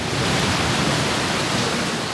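heavy pouring rain

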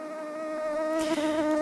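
mosquito buzzing

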